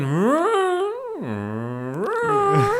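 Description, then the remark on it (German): A voice imitates a leaf blower revving up, briefly kicking into turbo: a droning hum that climbs in pitch, drops low and holds, then surges back up again. Fairly loud, with no speech. “Und das Schlimmste am Laubgebläse ist so dieses klassische Hochfahren. Also die schalten ja immer nur kurz den Turbo”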